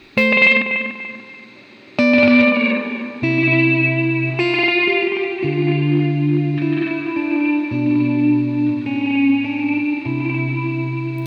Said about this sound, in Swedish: Då får man feedback på fjärde tonhuvudet men inte på de andra.